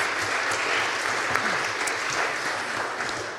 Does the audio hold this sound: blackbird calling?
no